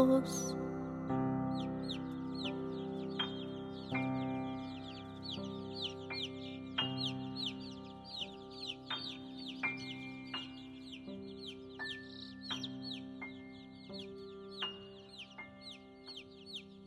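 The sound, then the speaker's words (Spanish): A hen clucks while chicks peep in quick, repeated high chirps, all set over steady background music with sustained tones. “Bajo sus dos alas acurrucaditos, hasta el otro día duermen los pollitos.”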